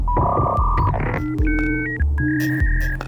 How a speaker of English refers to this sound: the sound of Cyrus One's data center, this low E off in the desert